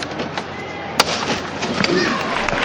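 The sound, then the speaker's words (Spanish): A large crowd lining both sides of the street claps as the paso de misterio of Jesús Orando en el Huerto of the Cofradía de la Estrella is lifted, a dense, continuous patter that stays steady, with one sharp crack early on and crowd voices mingling underneath. “al cielo el paso de misterio de Jesús Arando en el huerto levanta los aplausos de- del público que asistente asistente en un gran número la verdad es que se cuentan por varias las filas a cada lado de la acera”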